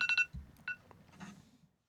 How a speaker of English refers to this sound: oh, sorry. Random timer.